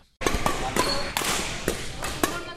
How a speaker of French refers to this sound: Ce son si spécial d'un volant qu'on frappe de toutes ses forces est un brin hypnotisant, mais pas pour Mathieu Thomas.